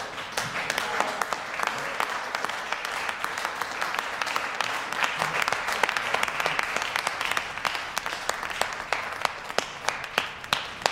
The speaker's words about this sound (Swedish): Ja, kan jag också få en applåd ju... för att jag bara drog upp alla de årtalen ur röven? jo, verkligen. Lägg in en applåd.